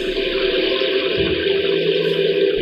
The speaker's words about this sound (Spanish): Entonces, cuando el campesino quería lluvia ligera, así sucedía.